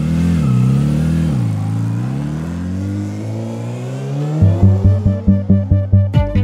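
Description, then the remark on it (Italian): A motorcycle engine, warmed up after standing idle for a while in a garage and ready to set off, revs up and down with rising and falling pitch, then settles into a loud, choppy, pulsing throb of regular bursts, with no voices. “La moto di Nicola è stata ferma per un po' in garage, ma ora che il motore si è scaldato è pronta a partire”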